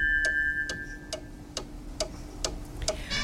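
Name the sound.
studio clock ticking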